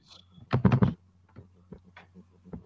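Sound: computer mouse button clicking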